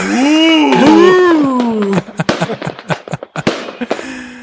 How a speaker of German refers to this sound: Das war eine große Rakete.